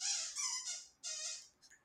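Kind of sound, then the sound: animal, puppy making noise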